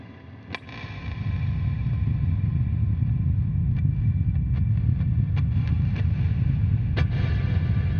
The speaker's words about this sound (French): Wow! Comme c'est impressionnant! Un volcan en éruption.